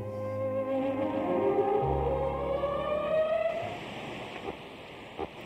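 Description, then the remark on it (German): Steady hissing radio static picked up on a tape recorder, with a sustained string melody surfacing through it, gliding upward before sinking back into the noise after a few seconds. “Dann saßen die beiden um dieses Gerät rum und haben da den Knopf endlich gefunden und dann hört man so aus dem Rauschen so eine Melodie mit, mit Streichern.”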